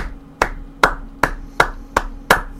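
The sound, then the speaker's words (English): Six sharp hand claps in a slow, steady rhythm, each a crisp, bright smack with a short decay, one person applauding to congratulate Philbin, former Packers offensive coach, on becoming head coach of Miami, with no talking over it. “I'll give you an applause there for that.”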